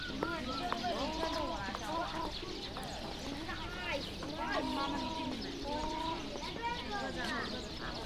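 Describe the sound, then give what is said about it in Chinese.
A flock of pigeons fills the scene with a steady, busy chorus: overlapping low coos and short warbling calls, rising and falling continuously with no pause throughout. “我我就发现，这鸽子放到你到这个地方让我去看”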